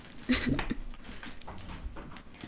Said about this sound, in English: We are searching, searching. This is the sound of me digging into my bag. I'm trying not to feel their size. Just trying to pick a random one.